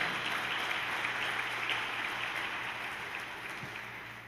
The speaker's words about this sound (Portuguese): Dê uma salva de palmas.